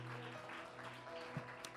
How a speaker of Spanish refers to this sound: Mis hermanos. Démosle un fuerte aplauso al Señor porque Él le merece.